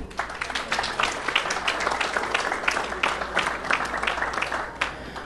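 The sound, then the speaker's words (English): Steady applause from an audience, many hands clapping densely and continuously for several seconds without a break. “Let's give him an applause, please.”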